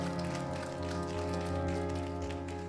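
Steady audience applause, a dense crackle of many hands clapping at once that holds at an even, moderate level for a few seconds over a low constant hum, with no voices.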